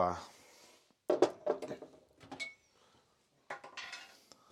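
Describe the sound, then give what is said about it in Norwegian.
Glassware clinks and knocks in a few short bursts with brief pauses between, bright clattering like two new drinking glasses being taken out and set down to try another drink, with some low handling noise. “Men uh, skulle vi funnet to nye glass og prøvd oss på ja.”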